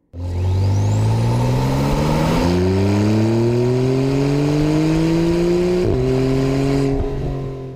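A turbocharged Porsche 911 Turbo engine accelerates loudly, climbing through a few quick gear shifts while a high, rising turbo whine spools up over the roar.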